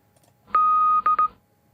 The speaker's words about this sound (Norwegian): Skal vi høre morsen av de to òg?